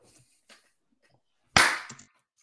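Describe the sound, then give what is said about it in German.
A single loud, sharp hand clap, made to set a beat, with a brief ringing decay, preceded by a couple of faint soft taps; there is no steady clapping rhythm. “So, du klatschst.”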